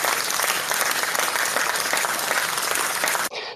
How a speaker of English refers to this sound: Let's get let's give you a round of applause for that for, for real, man.